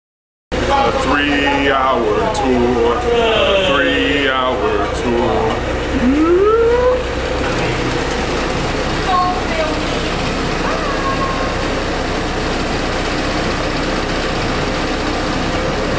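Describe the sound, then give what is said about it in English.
A boat engine drones steadily the whole time, a loud constant rumble, with voices calling out over it near the beginning as people get on the boat, before the engine carries on alone. “Got us getting on the boat.”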